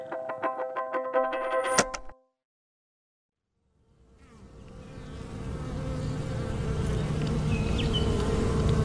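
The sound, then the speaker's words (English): A dense hum of many honeybees buzzing swells in after a brief musical tone and a short silence, growing steadily louder into a thick, continuous swarm drone. “Imagine you are a bee, a honeybee, and every morning you wake up in the greatest place on earth Hawaii.”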